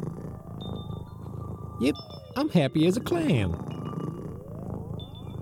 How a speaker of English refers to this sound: Oh, that's just Sadie. Is she purring? Yeah, they purr if you pet them, right?